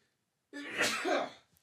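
A single loud sneeze bursts out suddenly after a moment of silence, a sharp, breathy explosion that fades within about a second. No one speaks.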